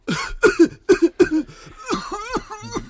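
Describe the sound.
A person imitates the coughing fit of someone smoking a thick cigar who is not used to it: about five quick, harsh coughs, followed by strained, wheezy, gasping vocal sounds.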